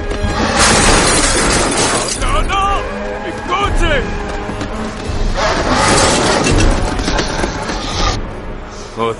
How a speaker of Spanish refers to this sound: Las momias soldados salen del museo a través de la pared. Corren tras el autobús y destrozan el coche de O'Connell.